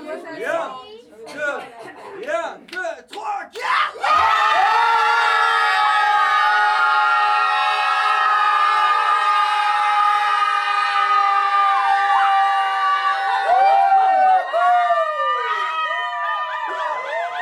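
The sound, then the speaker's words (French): A group of people shout together as a pack, loud. Scattered short yells at first quickly merge into a sustained, wavering chorus of voices that holds for over ten seconds, almost like howling. “Alors on a continué à crier en meute.”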